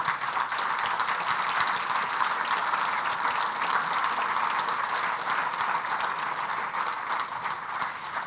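A church audience applauds the Lord, a dense wash of many hands clapping at once that holds at an even, fairly loud level throughout with no voices breaking through.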